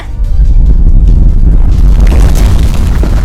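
A deep, rumbling volcanic explosion, blasting lava dozens of meters into the air, that roars continuously at full loudness for about three seconds, dominated by heavy low-end boom with crackling, gritty texture on top and no voices.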